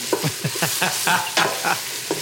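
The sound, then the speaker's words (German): Food sears in a hot pan with a steady, bright sizzling hiss, broken by quick rhythmic scrapes or stirs roughly every quarter second. No one speaks. “Röstaromen. Und mit Röstaromen sind super.”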